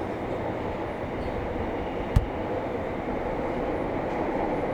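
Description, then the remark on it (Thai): A subway train rumbles steadily underground, a continuous low, dense roar with a single sharp clunk midway through. No voices are heard. “สัญญามันก็ชอบขาดหายแบบนี้แหละเวลาอยู่ใต้ดินอะอย่างมากกูว่าก็ไปลงสุดสายมึง”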